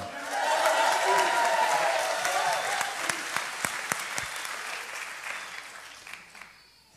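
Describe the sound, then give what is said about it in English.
A crowd at LFC, a church, cheers and applauds loudly after being asked for a loud shout, with whoops and shouts early on over dense clapping that gradually thins and fades out over several seconds. “So would you give a loud shout, woot woot,”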